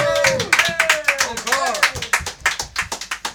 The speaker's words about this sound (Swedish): Vi tackar för ett live, sen kan vi inte få en applåd.